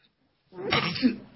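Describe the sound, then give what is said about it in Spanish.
After a brief silence, a single noisy sneeze bursts out and trails off, with no talking around it. “Perdón vuelvo, es que en cuanto estoy aquí, me encuentro también con la lluvia, que el estornudo, y además no tengo a mi lado.”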